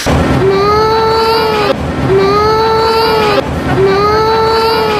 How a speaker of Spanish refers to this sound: lo que vamos a oír es un llanto real de niño, es hacer llorar a las criaturas.